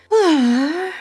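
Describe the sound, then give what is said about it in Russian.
A giant fairy woman's single breathy gasp from a video game, loud, drawn out for nearly a second with a voiced, wavering tone that dips and rises before fading. No other sounds or talking. “Пожалуйста, добавь звуки этой женщины подкаст”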